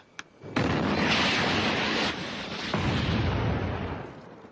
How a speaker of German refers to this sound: Start der zweite Sidewinder-Rakete.